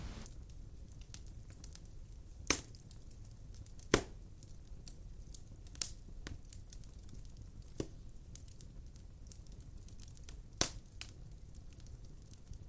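A fireplace crackles steadily, a soft low rumble of flames dotted with sharp pops and snaps at irregular intervals, a few louder cracks standing out. No one speaks.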